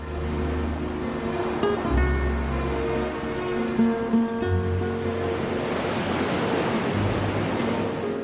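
A steady wash of surf rolls and breaks on the shore of a deserted beach, the broad roar swelling toward the end, with a low sustained droning tone running beneath it and no voices.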